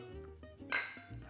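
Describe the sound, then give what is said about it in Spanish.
A single bright clink as two cups of water and coffee are knocked together in a toast, a short ringing tap that fades quickly into quiet. “Primero con nuestra agua, nuestro café. Salud.”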